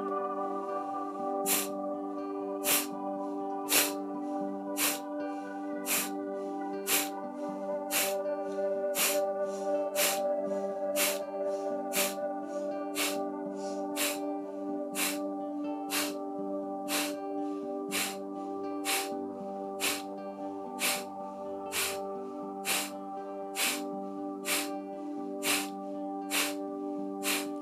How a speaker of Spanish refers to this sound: Eso es, continúa y conforme vayas entendiendo la acción, entonces la inhalación ya no tiene demasiada tensión puesta, sino que ocurre naturalmente tras exhalar todo, todo el aire y aumenta ligeramente la velocidad de forma sutil.